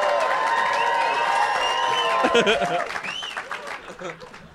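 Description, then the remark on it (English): A crowd bursts into applause mixed with cheering and whoops, loud; the clapping grows more distinct and scattered as the cheers fade toward the end. Much of the applause is because Lamorne was Snapchatting. “I got to tell the listeners that that applause was a lot of that was just because Lamorne was Snapchatting.”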